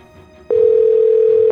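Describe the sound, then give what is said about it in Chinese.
A telephone dial tone as Victor lifts the receiver to ask the operator for the Paris police: it cuts in abruptly after a brief low hum and holds as a loud, steady, unbroken mid-pitched drone until the end. “拿起话筒：“ 喂，接线生吗？麻烦接巴黎警察局二四零零一。””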